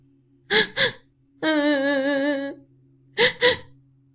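A girl sobs and cries: two quick gasping sobs, a drawn-out wavering wail, then two more sharp sobs, close and fairly loud with no other sounds around.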